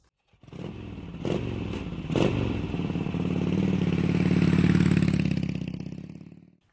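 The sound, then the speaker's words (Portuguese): A motorcycle engine starts up with a few sharp mechanical clicks, then revs and accelerates, its low growl swelling louder and steadier before fading out. No voices are heard. “Então, agora coloque o capacete e vamos nos aventurar sobre duas rodas.”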